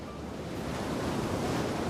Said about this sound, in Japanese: ここイギリスエセックス州はただいま14時沖合にある48基の風車が北海の強い風を受け今まさに発電しています